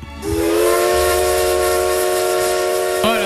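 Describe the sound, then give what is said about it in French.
A loud, sustained steam train whistle blows steadily for about three seconds over a broad hiss of steam as the train arrives at a station, then breaks off with a brief rising squeal at the end. “le train rentre en gare”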